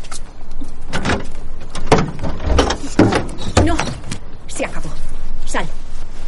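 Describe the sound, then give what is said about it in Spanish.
A woman gets back out of a car and works its front passenger door open with a series of mechanical clunks, clicks and creaks spread over several seconds, with faint muffled voices in the background. “Ante la negativa de su hijo, la mujer vuelve a bajar del vehículo y finalmente logra abrir la puerta del copiloto.”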